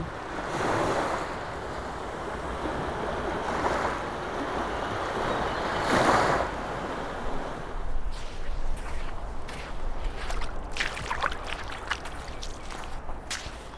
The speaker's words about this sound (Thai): เสียงคลื่นที่เราได้ยินอยู่นะครับเป็นเสียงคลื่นจากทะเลปากน้ำปานครับผม